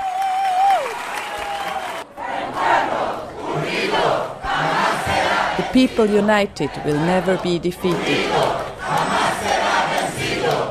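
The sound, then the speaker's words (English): A large crowd at the Assembly of the Social Movements cheers loudly and chants a slogan in rhythmic unison after participants announced that Egypt's Mubarak would soon step down, with applause and shouting filling the background throughout. “When the crowd, full of joy and happiness, calmed down a bit, the resolution was presented.”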